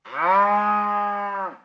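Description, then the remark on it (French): A single cow moos once, a steady, drawn-out low call lasting well over a second before cutting off, loud with no other sounds around it. “C'était le son d'une vache qui meugle.”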